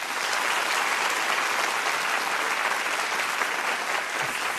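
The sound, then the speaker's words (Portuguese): A studio audience on the TV show Conversa com Bial applauds steadily, a dense wash of many hands clapping at once, loud and sustained with no pauses and no voices over it. “Nosso colunista de ciência, Stevens Hay, pode aplaudir.”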